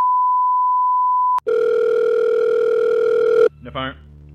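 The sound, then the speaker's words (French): A distressed woman calls the emergency services about her missing dog: a steady electronic telephone tone hums for over a second, then switches to a continuous, louder ringing tone that cuts off abruptly as a voice starts speaking. “Désemparée, elle contacte les urgences.”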